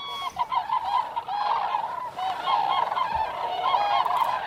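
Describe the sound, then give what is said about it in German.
A dense chorus of cranes and ducks calling together at 5 a.m. in the Anklammer Stadtbruch nature reserve, continuous overlapping honking and trumpeting calls, steady and busy throughout with no voices. “5 Uhr morgens im Naturschutzgebiet Anklammer Stadtbruch. Kraniche, Enten, Silber- und Graureiher und ungewöhnlich viele Seeadler.”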